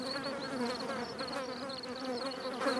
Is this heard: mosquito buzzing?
yes